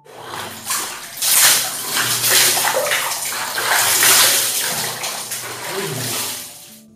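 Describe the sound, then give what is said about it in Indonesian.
Water sloshes and splashes continuously in a bathroom, like someone bathing, with steady running and pouring sounds, fairly loud, no voices present. “Jadi siapa ini yang mandi? Ketika saya eh, mengendap-endap dengan adik-adik saya, ternyata suara mandi itu tidak hilang.”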